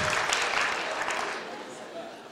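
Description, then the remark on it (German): A group of parents of five-year-old children applauding, a dense, steady patter of many clapping hands that stays fairly loud throughout and eases off slightly toward the end. “Und das sind die Eltern, die klatschen.”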